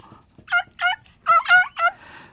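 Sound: hen clucking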